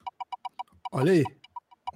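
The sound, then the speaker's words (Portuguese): A rapid series of sharp ticking clicks, like a spinning roulette wheel, slows gradually as it winds down, with a brief spoken exclamation cutting in partway through. “Quando você escutar o barulhinho da roleta, você automaticamente vai esquecer qualquer outra necessidade da sua vida e focar aqui no que interessa.”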